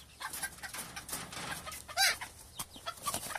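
Hens cluck in a busy, overlapping chatter of short calls, with one louder, sharper squawk standing out midway, without any voices.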